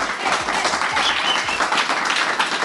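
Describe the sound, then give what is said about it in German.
Loud, sustained audience applause, a dense wash of many hands clapping steadily throughout with no voices standing out. “So, wir starten mal mit einem tosenden Applaus.”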